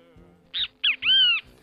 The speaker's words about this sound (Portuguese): Ó, ó, quem tá aqui. Eu ouvi. O Bentivi, ó. Oi, Bentivi.